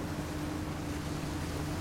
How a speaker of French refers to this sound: Et là, il croise un petit bateau à moteur.